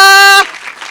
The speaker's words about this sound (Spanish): oh, denle el aplauso fuerte al Señor, aleluya.